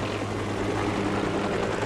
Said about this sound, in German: ein Mitarbeiter der Firma mit dem firmeneigenen Helikopter aus England nach Köln geflogen ist,